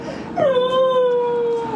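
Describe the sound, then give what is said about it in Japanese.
A dog lets out a single sustained, high whining howl, rising sharply then holding a steady wavering pitch before trailing off, wanting to go outside after another dog came by on its walk, with no talking over it. “はい、ということで統一郎君はワンちゃんがお散歩で撮ったので俺も外出たいよみたいなね”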